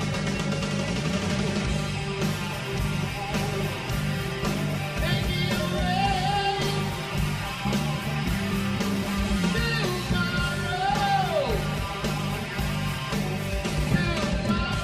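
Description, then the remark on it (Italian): A slow, heavy metal guitar riff with thick distortion, chugging in a steady groove and bending notes near the end, loud and continuous throughout with no voices. “Senti come anche in situazioni lente e metal lui riesce a creare del groove.”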